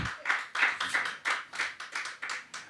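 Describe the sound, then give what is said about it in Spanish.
An audience claps in a steady rhythm, about eleven firm, sharp claps blending into a group beat at an even tempo, with no voices. “Dele, dele, fuerte palmas, hermanos.”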